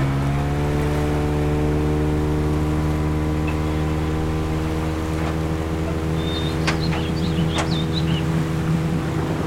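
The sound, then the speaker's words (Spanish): A motorboat engine drones steadily on the Orinoco River heading upstream, a loud low hum with layered harmonics and rushing wind noise, with a few brief high chirps near the end. “creo que me tiene listo una lancha y vamos a ir por el mítico río Orinoco.”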